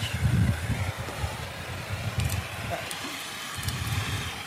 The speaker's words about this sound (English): lighting the bonfire. One, two, three, and a three. Using a blowtorch.